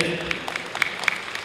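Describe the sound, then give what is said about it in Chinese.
An audience applauds to thank Professor Luo for his lecture, a dense, steady patter of many hands clapping at moderate volume, a few sharper claps popping out of the crowd noise. “好，再次掌声对罗教授的精彩的演讲表示感谢，谢谢。”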